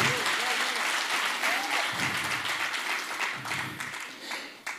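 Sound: audience applauding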